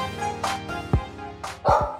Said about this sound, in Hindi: हाँ ये देखो ये देखो ये देखो आई डोंट नो जब भी मैं एपिसोड रिकॉर्ड करने लगता हूँ तो कुत्ते भौंकने लग जाते हैं इट्स वेरी वियर्ड एंड ये बहुत बार हुआ है